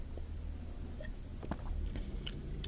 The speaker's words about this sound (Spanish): Eh, permítanme darle un sorbo.